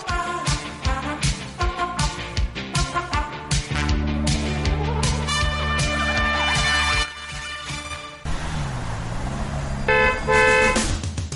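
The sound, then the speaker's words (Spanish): Loud, overlapping car horns honk repeatedly in a traffic jam, some in short toots and others in long sustained blasts, over a steady low rumble of idling engines. No one speaks. “Atascada en el tráfico,”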